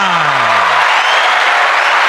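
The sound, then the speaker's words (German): A crowd breaks into loud, sustained applause welcoming a quiz moderator, a dense and steady wash of clapping that fills the whole moment, with a voice trailing off briefly at the very start. “Einen großen Applaus für Sebastian”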